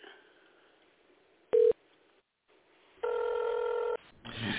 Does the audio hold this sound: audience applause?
no